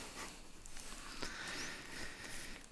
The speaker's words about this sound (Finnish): saattaa kuulua lähetyksessä sellaista pientä raapustelevaa ääntä ja se johtuu siitä, että Ilkka sai tässä ennen lähetystä kynän käteensä